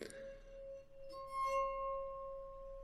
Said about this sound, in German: Da hörte er fallende Münzen um sich herum, den Klang von fallenden Münzen